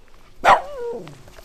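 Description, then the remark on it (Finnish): A dog gives one sharp, loud bark, trailing off into a falling, whiny tone, then a few faint yips or rustles in an otherwise quiet outdoor setting, during a mushroom-picking outing with two dogs. “No niin, sitten koirat mukaan ja menoksi.”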